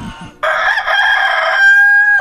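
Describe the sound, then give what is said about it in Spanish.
A rooster-crow alarm clock gives one loud cock-a-doodle-doo, a drawn-out harmonic crow that holds steady and ends on a sustained high note, with no talking around it. “Así que ya lo saben amigos, en Laboratorios Yayo, para ustedes las personas que nos conocen de hace mucho tiempo, nosotros siempre hemos vendido el despertador del gallito.”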